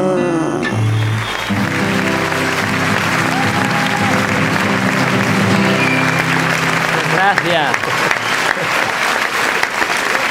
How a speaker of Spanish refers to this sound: ¿Cómo molan los aplausos? Eso es son, vida. Son los vuestros.